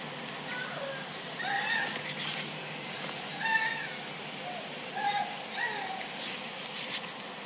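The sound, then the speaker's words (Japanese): A woman's loud moaning carries from a neighboring reinforced-concrete apartment building, muffled, rising and falling in repeated drawn-out wails over a steady background hiss. “いやうちのマンション鉄筋コンクリートやねんはいはい隣のマンションも鉄筋コンクリートやねんけど、うん、バカでっかい喘ぎ声出す女がおる近くに”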